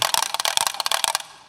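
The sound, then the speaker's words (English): A wooden gas rattle, the kind used in England during the war as a gas alert, is swung round in a demonstration, giving a fast, harsh burst of wooden ratcheting clicks for about a second before stopping abruptly, with a brief fading tail and no voices. “um, a they call it a gas rattle.”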